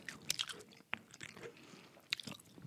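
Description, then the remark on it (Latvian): Chewing and crunching of shrimp, with sharp irregular crackly bites and wet mouth sounds, quiet overall with a few louder crunches and no talking. “Cilvēki ēda, cilvēki ir laimīgi.”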